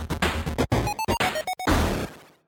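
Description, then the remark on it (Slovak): A voice imitates a short jingle with a few choppy, pitched notes mixed with noisy, clattering bursts. It falters partway through and then trails off. “chcel nejaký jingle vlastný si Chcel si som, ale v polke, v polke toho zvuku, čo som vydal, sa mi nepodaril.”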